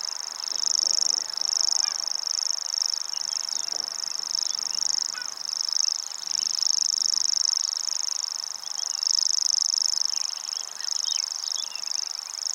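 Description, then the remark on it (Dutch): A grasshopper warbler reels continuously, a high, dry, insect-like trill running unbroken for the whole stretch, steady, with faint calls from other birds scattered in the background. “begon die, die springkaanzanger... begon lekker zijn insectachtige ratel als een naaimachine met een loszittende spoel...”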